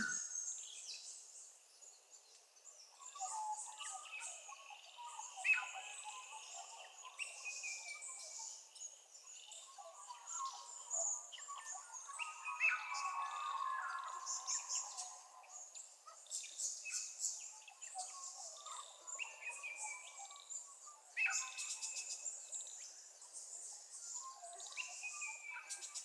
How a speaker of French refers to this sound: je vais tout simplement vous proposer d'écouter le chant des oiseaux et d'observer les émotions qu'ils évoquent en vous.